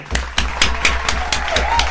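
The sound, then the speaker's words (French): Steady hand clapping from what sounds like one person, about eight sharp claps in a quick, even rhythm over a low background hum, with no one speaking. “Oh là là, j'ai envie même de l'applaudir.”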